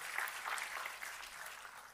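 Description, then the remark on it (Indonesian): A crowd claps for God, steadily, in a dense, continuous wash of hand claps, bright and hissy, holding at an even level for the whole stretch with no voices on top. “Tepuk tangannya boleh yang paling meriah buat Tuhan kita.”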